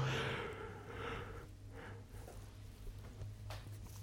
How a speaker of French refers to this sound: Ah ouais, excusez-moi, je baillais. Oh là là, j'espère que ça s'est pas trop entendu ici euh, dans le podcast. Ça, ça fait pas très sérieux, mais je suis vraiment désolé, je suis crevé.